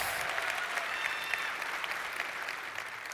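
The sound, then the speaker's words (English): Steady applause from an audience in a chapel, thanking the founders: a dense, continuous patter of many hands clapping at a fairly even level throughout, with no one speaking over it. “You want to thank those people because you should. That's not loud enough. They can't hear you in the chapel.”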